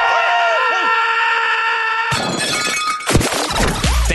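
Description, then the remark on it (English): A steady tonal melody plays, then a loud crash of dishes smashing takes over as a man throws dishes down and falls with them, with a burst of shattering crockery and several sharp follow-up breaks clattering in quick succession. “He throws what looks like dishes down there, and as he throws the dishes, he falls with the dishes.”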